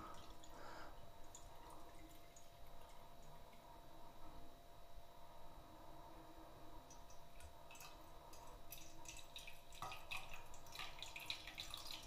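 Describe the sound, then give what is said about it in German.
Tea that has gone fairly cool being poured into a mug, a steady trickling splash with small drips and clinks, fairly quiet, getting a bit busier and brighter toward the end. No one speaks. “Genau, gießen ist immer gut.”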